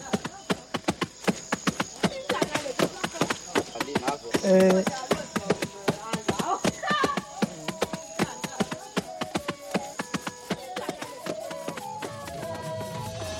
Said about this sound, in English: we're hearing the Baka pounding the mound, they're breaking open the mound